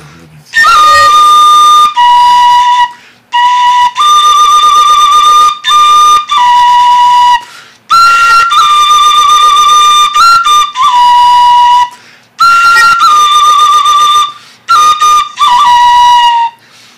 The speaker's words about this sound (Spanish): Esta es una ocarina, una tlapilocarina, porque tiene la forma de una flauta de carrizo por el tamaño, por lo largo, pero a su vez está elaborada con barro, con elementos de tierra y el sonido funerario que la caracteriza.